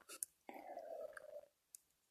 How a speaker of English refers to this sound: Take a sip of my coffee there.